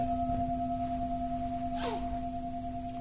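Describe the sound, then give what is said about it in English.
A meditation bell's steady ringing tone hangs through the whole stretch, clear and sustained with no new strike, while a brief soft whoosh passes partway through. “So there's material form, and then the rest is feeling tone, um, which is when we hear the bell, we have a, a feeling of, oh, that pleasant or unpleasant, right?”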